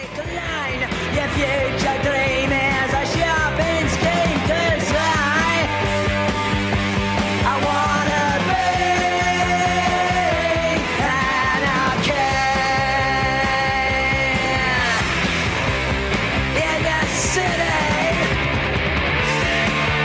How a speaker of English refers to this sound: It was like definitely introduction to punk when … played this song